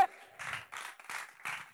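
An audience applauds in a burst of clapping that swells and fades in four quick, rhythmic waves, fairly loud, with no talking over it.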